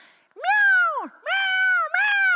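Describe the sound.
A voice imitates a house cat meowing: three loud, drawn-out, whiny meows in quick succession, the first bending down in pitch at its end.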